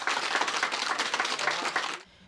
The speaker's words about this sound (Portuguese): Uma idosa de 97 anos foi curada da Covid-19. Ela ficou seis dias internada e deixou o hospital, como está virando hábito, em meio a aplausos.